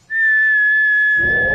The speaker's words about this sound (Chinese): 我吹口哨，你们听， 我可以用缺牙齿的地方拽哦。